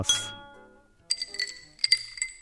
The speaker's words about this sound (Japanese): 神戸の水道水おかわりですねもう一杯じゃあはいこちらはお店からご馳走しますあありがとうございますいえいえじゃあもう一度乾杯